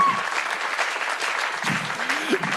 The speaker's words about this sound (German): And anytime you feel like clapping, let me encourage you to do so.